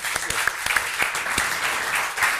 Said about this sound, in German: Applaus.